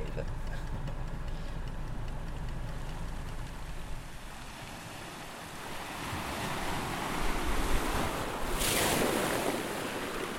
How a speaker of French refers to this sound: entre deux mers, au milieu des terres, bercé par les vagues du Mascaret.